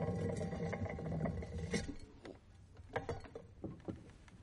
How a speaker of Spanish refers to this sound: Más tarde, una de las latas del teléfono rueda por el suelo de la habitación.